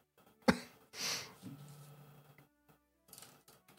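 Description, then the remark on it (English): A person imitates a woman character's fit of coughing: a sharp hack, then a rough, raspy cough trailing into a strained vocal groan, followed by a few softer coughs. “So, as you do that, she coughing.”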